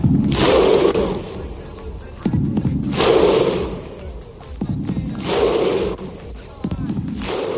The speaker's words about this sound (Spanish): Croacia casi primera seguro, los islandeses, el grito vikingo del Mundial, se meten si ganan por lo mismo que ganara Argentina.